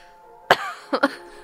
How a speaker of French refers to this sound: Ah, ça commence par une toux.